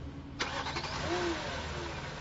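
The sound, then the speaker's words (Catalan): The engine of the president's official car cranks and catches with a sharp click, then settles into a steady, low idling rumble, with no voices, as the car sets off for the Fundació Miró in Catalonia. “Trajecte amb el cotxe oficial del president cap a la Fundació Miró.”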